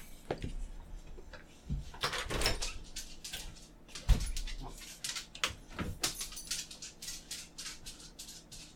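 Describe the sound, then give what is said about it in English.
A dog whimpers and shuffles about amid scattered thumps and rustling as it is being put away, with a door sliding or closing partway through; no one speaks. “Give me a second to put my dog up.”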